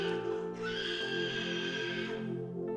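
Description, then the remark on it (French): A person screams loudly and continuously for a few seconds during a deliverance prayer, a strained, harsh cry with a wavering pitch that stays intense, with no other speech. “Et c'est le cri de l'homme fort que vous entendez.”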